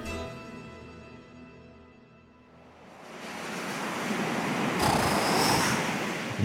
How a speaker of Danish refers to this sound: høre hvad havet, der bruser lige op ad soklen.